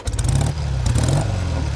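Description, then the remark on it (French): A four-wheeled car engine revs loudly, a deep rumbling drone that holds steady and swells slightly over a couple of seconds, with no voices. “On avait envie de mettre le bruit de, ta, voiture, mais c'est une 4 roues, donc euh, on va voir si on peut faire ça.”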